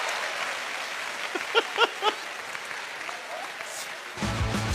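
A crowd applauds steadily for a couple the host has just interviewed, a dense wash of clapping, with a few whoops or shouts rising above it partway through before a low rumble joins near the end.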